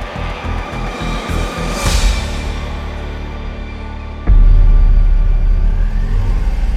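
A car engine drones steadily from inside a moving vehicle, a deep continuous rumble with faint rhythmic pulsing early on, then growing noticeably louder partway through as if accelerating.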